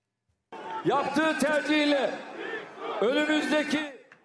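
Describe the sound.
An enthusiastic crowd in front of Erdogan's residence cheers and chants as he announces his election victory from the roof of a parked bus, many voices overlapping in a loud, continuous roar that swells, dips briefly, then rises again.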